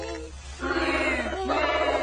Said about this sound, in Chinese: 美洲狮的声音。小眼镜熊最怕的就是美洲狮了。